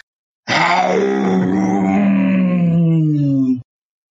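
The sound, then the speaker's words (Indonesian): A tiger in the distance lets out one long, drawn-out roar lasting about three seconds, its rough tone slowly sinking in pitch before cutting off, heard alone with no talking. “Pelan-pelan ia mendengar suara auman harimau di kejauhan sana.”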